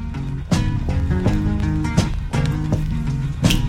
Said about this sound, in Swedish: Men om man spelar det på 33 varv, alltså en singel som man spelar lite långsammare, då blev det också bra. Fast då låter det så här.